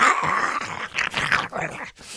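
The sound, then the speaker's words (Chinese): A human voice imitates a lion's growl while telling the Bible story of a lion meeting the man of God on the road: a loud, rough, rasping snarl lasting about two seconds, pulsing in several throaty bursts before breaking off briefly near the end. “他在路上，这个咕噜咕噜咕噜咕噜咕噜咕噜，然后呢，有一只狮子跑出来，”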